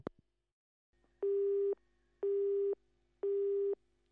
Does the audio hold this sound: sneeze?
no